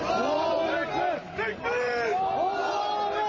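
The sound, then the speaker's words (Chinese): A crowd of people in Turkey's earthquake disaster zone shouting together during President Erdoğan's visit, many overlapping voices raised in loud, strained cries that swell and dip briefly before surging again, steady and intense throughout. “无视民众呐喊，埃尔多安巡视灾区，只听简报，也没有拥抱灾民安慰。”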